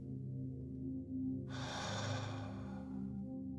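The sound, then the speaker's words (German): A deep, slow breath drawn in for about a second and a half, then stopping as the breath is held, over a steady low droning background. “Lass uns gemeinsam einen tiefen Atemzug nehmen. Lass uns den Atem kurz anhalten.”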